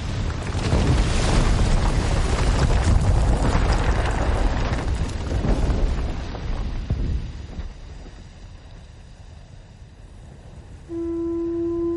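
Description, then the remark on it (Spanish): Loud, rolling explosions draw closer, rumbling and roaring almost continuously for several seconds, then fade to a quiet hiss before a steady, horn-like tone sounds at the very end. “Las explosiones se acercan.”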